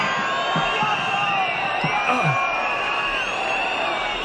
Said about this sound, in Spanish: Bueno, yo, estaba a punto de darme por vencido cuando una voz se ha alzado entre la muchedumbre al grito de ¡Payaso!